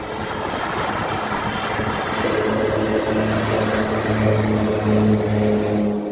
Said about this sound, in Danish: Et vandfly, der mange gange er lettet fra Aarhus Havn og landet i Københavns Havn, og så har taget vejen tilbage igen